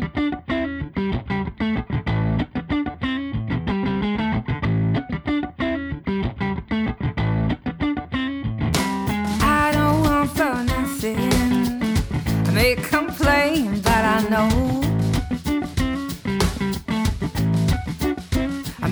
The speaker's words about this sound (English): So I'm going to play you some folk music for an hour because that's my job. Sit back, relax, and listen to this.